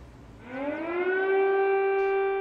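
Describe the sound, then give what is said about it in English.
Air-raid sirens in Kiev, Ukraine, in the morning on day two of Russia's war on Ukraine: a wailing siren rises in pitch and then holds a long, steady, mournful tone, loud over faint background rumble. “This morning in Kiev, the eerie wail of sirens, day two of Putin's war on Ukraine.”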